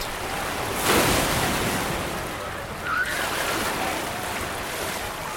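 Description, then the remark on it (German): Rushing water from a blue waterslide tube fills the scene with a steady, roaring wash, broken by a couple of heavier splashes as water crashes into a non-swimmer pool and over a slider's head, fairly loud, with no voices. “Wasser schäumt, klatscht über dem nächsten Kopf zusammen.”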